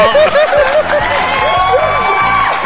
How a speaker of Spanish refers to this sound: ¡Aplausos para esa pinche mamada, huevo!